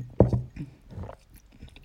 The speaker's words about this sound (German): Darauf erstmal einen Schluck Granatapfelsirup. Mm.